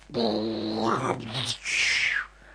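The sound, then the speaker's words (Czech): A person imitates rushing wind with their voice: a loud, droning hum that swells and wavers for over a second, then gives way to a breathy, hissing whoosh. “A nebyl to zvuk, jako dělám já teď. Byl to opravdový vichr.”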